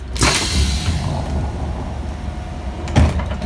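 A pneumatic door on a VT2E railcar, worked by compressed air, opens with a sharp burst of hissing air, then a steady low mechanical rumble, and another loud hiss and thump near the end as it closes.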